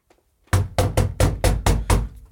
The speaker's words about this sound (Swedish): Nu knackar det på studiodörren. Ja, knacka är ju en underdrift. Det bankar på dörren. Det låter som att någon försöker riva huset där vi sitter. Det är uppenbarligen någon som är riktigt, riktigt arg.